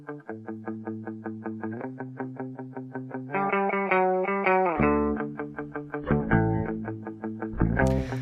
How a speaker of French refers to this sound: on entend la musique de What's Up Rockers, c'est un film de Larry Clark, euh, tu cinéaste, grand cinéaste américain que l'on aime beaucoup toutes les deux et qui, s'est fait un peu une spécialité de filmer la, jeunesse.